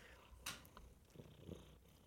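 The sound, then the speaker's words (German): A cat purrs very close to the microphone, a low continuous rumbling with soft pulsing swells, plus a brief brighter rustle near the start. No one speaks. “Das Schnurren im Mikrofon.”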